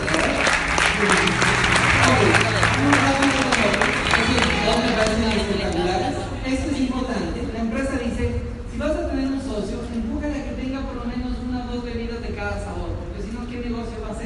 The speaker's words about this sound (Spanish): Dale un fuerte aplauso.